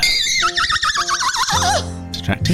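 A horse whinnies loudly, its high quavering neigh wobbling rapidly before dropping into a lower, rougher snort at the end.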